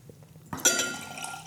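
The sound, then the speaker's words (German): Water is poured steadily into a glass to give someone more water, starting with a sudden splash and continuing as a bright, bubbling trickle that rises in pitch as the glass fills, clear. “Gib dir mal noch ein bisschen Wasser.”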